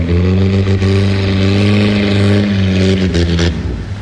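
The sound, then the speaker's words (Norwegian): A loud boat motor roars and revs steadily as someone drives the boat showing off, with a strong low rumble and rich harmonic drone, easing slightly near the end. No voices accompany it. “Hva for en asshole bare driver og brifer med båten?”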